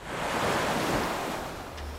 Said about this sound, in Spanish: Y todo transcurre con normalidad hasta que, en las inmediaciones del puerto de Nueva York, el vapor embarranca. La niebla y el mar revuelto provocan cierta incertidumbre que con premura el capitán de la embarcación se encarga de disipar.